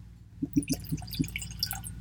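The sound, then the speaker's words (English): Knob Creek whiskey, from a distillery in Clermont, Kentucky, glugs from a bottle into a glass in a quick run of about five soft gurgles, fairly quiet, with light splashy tinkles above them and no talking. “So, without further ado, let's go and get that Knob Creek poured.”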